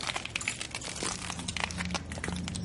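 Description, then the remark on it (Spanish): Footsteps of people walking beside a house crunch over broken glass, a dense run of sharp, brittle crackles and crinkles that keeps going for a few seconds over a low, steady hum, with no voices. “Pisan unos cristales.”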